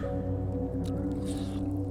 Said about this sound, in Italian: l'orribile suono di … che mastica,